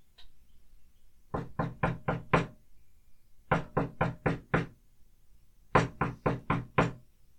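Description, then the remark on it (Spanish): Three separate bursts of five firm knocks each on a wooden farmhouse door, evenly spaced with short pauses between the groups, clear with no voices. “¿Quién sabe si podré pasar aquí la noche? pensó y llamó a la puerta.”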